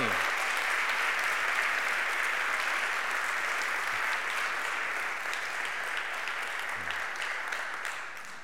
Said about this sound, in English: Let's give our band just another round of applause for, me.